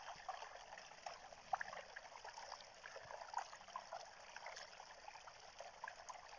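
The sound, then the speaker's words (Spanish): Water trickles steadily and softly, a continuous gentle babble with small bright droplet splashes scattered throughout, heard alone without voices. “El agua se ocupa simplemente de ser. Es cantarina brillante, transparente, es pura.”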